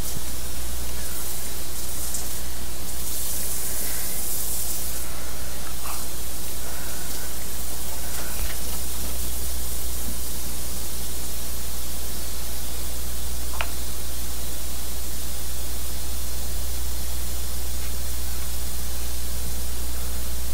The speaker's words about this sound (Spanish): Ahí se escucha donde abrimos la llave y estamos tomando nuestra ducha.